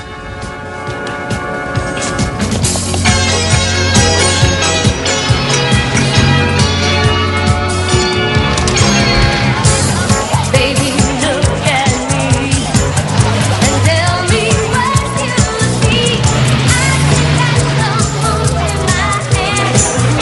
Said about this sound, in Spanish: Eh, creo que esta película se presentó en la televisión colombiana, si no estoy mal. Y como dicen a Cristina, estaba muy asociada al tema de, la música. si no estoy mal, esta, es la, esta es la canción de la película. Escuche.